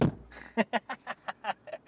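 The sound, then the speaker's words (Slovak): A car door shuts with a low thud, followed by a quick, even series of short creaking pulses as the whole car body rocks. “Zavreli sme dvere, zahmávalo, auto celé sa zakývalo.”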